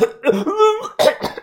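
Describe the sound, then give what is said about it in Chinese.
A voice imitates a fit of coughing by a man sitting on the ground clutching his throat with both hands: a strained, raspy vocal sound followed by three harsh, breathy coughs in quick succession, fairly loud and with no talking. “他双手捂着自己的喉咙，不住的连连的咳嗽。”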